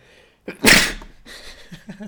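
A single loud sneeze bursts out with a sharp breathy blast, followed by quieter murmuring voices and shuffling noises.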